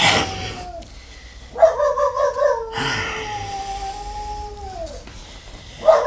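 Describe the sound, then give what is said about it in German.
A dog howls at night in long, wavering tones, breaking into a short burst of warbling yelps before another drawn-out howl that slowly falls away, loud, with no talking. “Dieses Hundevieh, das kläfft einen ja in Grund und Boden hinein.”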